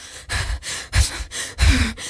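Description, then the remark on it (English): Someone imitates heavy, dramatic breathing, like Madeline Kahn's character in a movie: a run of four loud, airy breaths in and out, rhythmic and exaggerated, with no talking. “like really dramatic breathing.”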